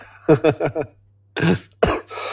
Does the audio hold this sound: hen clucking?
no